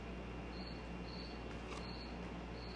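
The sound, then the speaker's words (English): A cricket chirps in the background in steady, evenly spaced bursts, faint, over a soft constant hiss of background noise with no one speaking. “That's a cricket.”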